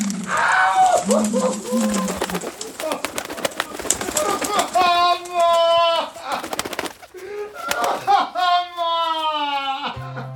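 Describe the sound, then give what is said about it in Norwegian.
Carrier pigeons coo loudly while wings flutter in rapid bursts, with a man's agitated voice shouting over the flock. “Brevduer? Hadde det bare vært brevduer. Det var trusselbrevduer.”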